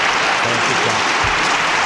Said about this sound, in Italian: tipo mettimi un applauso tipo standing ovation. Ma ah, ah, no scroscia, ah, più, che scro- più, che scrosciante